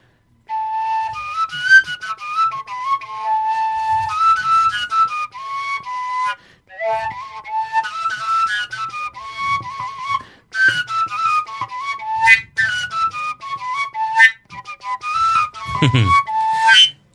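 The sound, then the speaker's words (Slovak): A longer folk pipe, giving a lower, deeper tone, plays a breathy, whistle-like melody of quick runs and held notes, steady and fairly loud, with a few brief pauses between phrases and no talking. “Čiže čím, čím je dlhšia... Tým je hĺbšia.”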